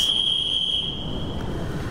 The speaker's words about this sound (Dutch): De conducteur zijn fluitje. De Nederlandse spoorwegen willen niet langer dat de conducteur fluit, althans niet op één traject.